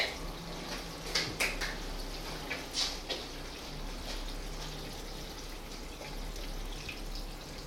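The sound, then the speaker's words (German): Water poured to simulate rain, slowly running through: a steady, soft hiss of trickling, splashing water throughout, with a few sharper drips and splashes in the first few seconds. No one speaks. “Und jetzt können wir so ein bisschen Regen simulieren, indem wir das jetzt hier mal so ein bisschen regnen lassen.”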